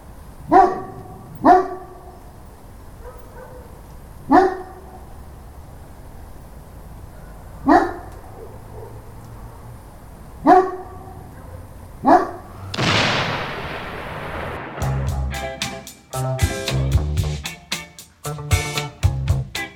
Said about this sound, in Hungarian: Ugat a kutya, hallod? Nem a miénk.